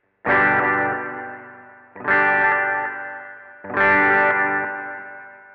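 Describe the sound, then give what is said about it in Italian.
An electric guitar strums three loud chords about two seconds apart, each ringing out long through reverb and delay pedals used together, played alone with no voices. “Ed infine ecco qua il suono con riverbero e delay tutti assieme.”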